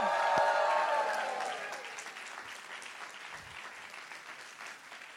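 An audience at a Spanish-language church service bursts into loud applause for Jesus mixed with shouts of victory and cheers, strongest at first and gradually tapering into scattered clapping over several seconds.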